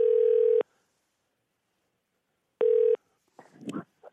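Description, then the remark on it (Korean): Two steady, buzzy telephone tones of an outgoing call to a listener sound with a long silent pause between them, followed by a short muffled rustling clatter, like a phone line being picked up. “예, 전화 한번 걸어볼게요.”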